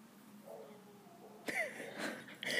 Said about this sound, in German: Das ist der Hund. cool. Hallo. Hallo, Doggo.